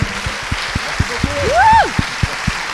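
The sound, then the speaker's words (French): Audience applause in a steady rhythmic beat, roughly four claps a second, with a brief rising-and-falling whoop or whistle cutting through midway. “Je voudrais encore vous applaudissiez très fort.”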